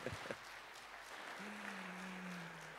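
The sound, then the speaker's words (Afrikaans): An audience claps steadily and densely for a group of children for a few seconds, a continuous wash of applause; a brief vocal sound opens it, and a low sustained tone joins partway through. “As ek gee hulle nog 'n hande klap julle.”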